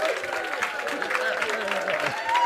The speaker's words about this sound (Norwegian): Like, please welcome the CEO! Yeah! yeah! And he comes on. Men han kommer på. He comes on, right? So keep on going. Woo! Yeah. Fortsett å klappe.